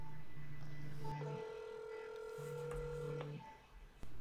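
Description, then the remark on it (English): Steady electronic telephone call tones: a low held tone sounds twice while a higher, longer tone overlaps between them, all fairly quiet with no talking. “No, I'm gonna call him because it's faster.”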